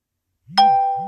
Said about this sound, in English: That's a notification. It's another notification.